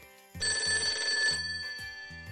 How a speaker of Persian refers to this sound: شب تلفن پایگاه اورژانس زنگ خورد